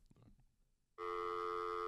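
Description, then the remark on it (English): A loud, steady electronic telephone ring tone on an open phone line starts abruptly after a second of faint murmuring and holds continuously to the end, bright. “We'll check the other line.”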